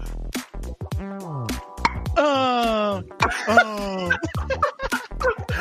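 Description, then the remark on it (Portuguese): Someone vocally imitates tennis player Guga's grunts while playing: a loud series of strained, moaning cries with sliding pitch, some drawn out and others short, repeated over several seconds. “Por que, por que, que os caras fazem esses gemidos quando jogam tênis, né, mano?”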